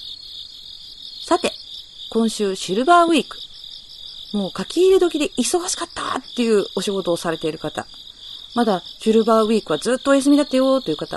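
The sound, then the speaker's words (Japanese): Steady, high-pitched cricket chirping pulses throughout as a continuous background bed, played as background music behind a man talking in the foreground. “コオロギ、私の後ろで泣いています。”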